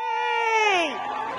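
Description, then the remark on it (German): A crowd in Minneapolis cheering after the judge read the guilty verdict in the George Floyd case: one loud, sustained high cry rises over a noisy background and then slides down in pitch, leaving a steady murmur of crowd noise. “So hat es in Minneapolis tönt, wo der Richter das Urteil im Fall von George Floyd verlesen hat.”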